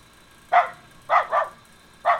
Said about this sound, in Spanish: Alexa, pon sonido de perro. Aquí tienes un sonido de perro.